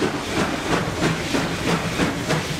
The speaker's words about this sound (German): Am 2. März 1948 endlich kommt der erste Zug mit Kisten auf dem Oranienbaumer Bahnhof an.